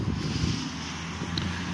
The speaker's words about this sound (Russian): У нас, кстати, сегодня ветрено в Ленинграде. Спасибо за понимание. Будет задувать.